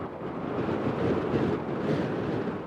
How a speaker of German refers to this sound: Es ist ein Schneesturm von überraschender Heftigkeit und Dauer. Der Sturm tobte an diesem Morgen mit solcher Gewalt, dass wir unsere Gipfelabsichten aufgeben und rasch im Zelt wieder Zuflucht suchen mussten.